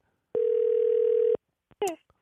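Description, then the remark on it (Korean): A telephone ringback tone from a call placed to a radio listener sounds once as a steady, loud, single-pitched tone for about a second, followed by silence, a faint click, and a brief snatch of a voice as the line picks up. “전화 한번 걸어보겠습니다.”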